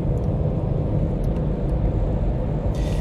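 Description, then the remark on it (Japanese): Steady low rumble of a car being driven, heard from inside the cabin, with constant road and engine noise and a brief hiss of passing air near the end, on the way back from the Tokyo Big Sight Metaverse store. “えー、私が今車を運転しているのは東京ビッグサイトメタバース店に行ってきましたその帰りですはい。”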